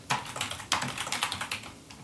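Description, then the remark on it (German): Rapid typing of a name on a computer keyboard, a quick run of crisp key clicks in an uneven rhythm, heard on its own without any talking. “Jetzt gebe ich hier mal irgendwie einen Namen ein.”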